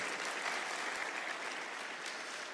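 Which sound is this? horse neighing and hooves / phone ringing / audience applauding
audience applauding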